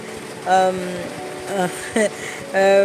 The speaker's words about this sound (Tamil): எங்கள் வீட்டுக்கு வெளியே மழை சத்தம் கேட்குதா அவங்களுக்கு